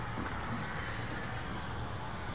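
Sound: ocean waves on beach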